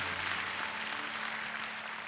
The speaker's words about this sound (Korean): 사망 권세 이기시고 보라신 우리 주님께 영광의 박수를 올려드리겠습니다